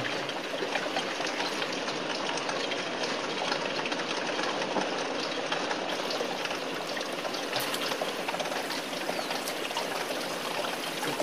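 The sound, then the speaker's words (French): An old car's radiator cooling fan runs continuously, a steady, fairly loud whooshing whir with a slight rattly texture and no pauses or change in level. No one speaks. “Le ventilateur.”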